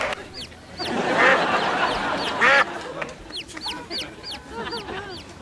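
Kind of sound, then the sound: bird, duck quacking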